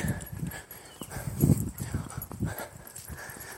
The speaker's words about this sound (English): Oh, there's a dog. Hello, dog. Hi, buddy. Oh, he's an old dog. All right, you go back home. See you, pal. I think the woman just let him out. He's kind of, aw kind of giving me that old happy dog, like, be my friend look.